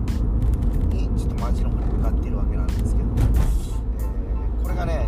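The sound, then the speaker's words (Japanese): Steady, heavy road traffic on a rainy morning in the 7 o'clock hour rumbles throughout, with cars hissing past on wet pavement, moderately loud and continuous, while a person talks over the noise. “えー、ねまあ、雨の朝となるとねやっぱ交通量も増えたりしてですね結構の車の量なんですけど、えー、だいぶねあのー、まあ、時間帯にもよるけどなんですよねこれがね、えー、今だって7時台”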